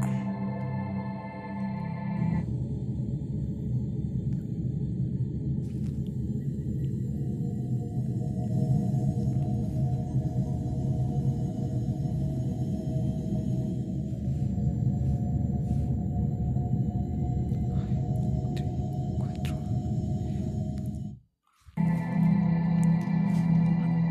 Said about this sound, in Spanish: Todos vivimos en la Tierra, pero no podemos escucharla. Y la melodía, por cierto, es increíblemente hermosa a su manera. Así suena el planeta Tierra.